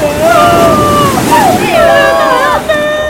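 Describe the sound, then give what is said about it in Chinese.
A huge rogue wave crashing, drawn by the noise of an animal choir singing, heard as a steady, loud roar of rushing water for about three seconds, with gliding, voice-like tones wavering over the surf. “没过多久，这股噪音居然引来了一阵好高好大的疯狗浪，所有观众都被冲进海里了。”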